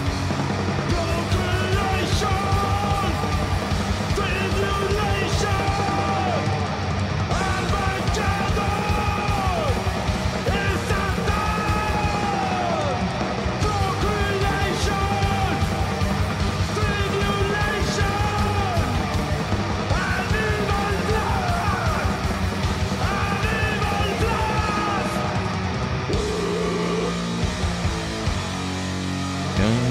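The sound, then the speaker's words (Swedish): Loud metal track with harsh shouted vocals barked over dense distorted guitars and pounding drums, the yelled singing driving steadily through the whole stretch. “fan, ropsång var det länge sedan man hörde.”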